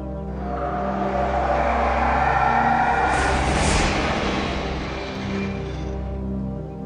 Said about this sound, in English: He drives away and they do a close up of her face, but hold on, I gotta bring it up.